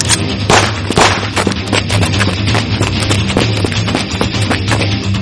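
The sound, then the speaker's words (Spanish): Young criminals fire rapid, overlapping gunshots at people running through a town, cracking out in a loud, continuous barrage, sharp bursts piling on top of each other with a low rumble underneath and no voices. “Nos recorrimos todo el pueblo corriendo mientras los jóvenes delincuentes nos disparaban.”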